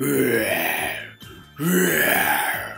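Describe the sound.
Two long, loud, guttural roars separated by a short pause, rough and growling with a low rumbling edge, as a voice imitates the Nian beast bellowing angrily.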